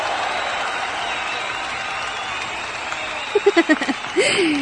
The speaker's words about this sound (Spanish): Y aplausos, por favor.